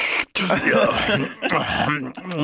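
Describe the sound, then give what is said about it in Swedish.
A man's voice makes a run of strained, throaty grunting noises, an imitation of the little grunts an old man lets out while drinking coffee. “och du vet, man börjar få sådana här konstiga gubbljud när man ska dricka kaffe.”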